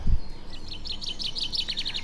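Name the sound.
sparrows chirping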